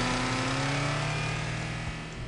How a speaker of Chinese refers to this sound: 二人说话间，汽车驶向了主要公路，车速也开始快了些。